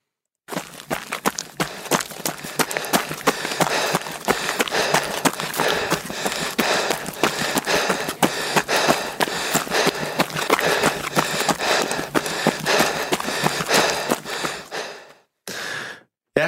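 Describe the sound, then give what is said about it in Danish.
Loud, heavy panting and gasping breaths over a steady rhythm of running footsteps, continuous for about fifteen seconds before stopping abruptly. “de fleste af os kender også følelsen af det her med at have en høj puls og tung vejrtrækning, altså følelsen af løb”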